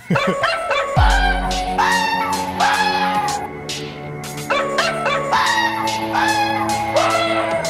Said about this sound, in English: Is it dogs and cats? It, it, I mean, one of them is a dog, but the other animal's not a cat. It's not a cat. No. Is it a, is it a dog and a goose? it's actually a dog and a fox. A dog and a fox.